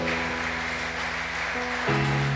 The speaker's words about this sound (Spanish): Y si estás de acuerdo conmigo, dale un fuerte, fuerte aplauso al Señor.